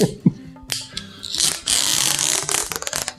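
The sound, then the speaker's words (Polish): Adhesive tape being pulled and pressed down, with a loud sustained ripping rasp mid-clip surrounded by shorter crackling tears and soft taps, all without any talking. “Nie powiem, co mi przypomina to naklejanie taśmy.”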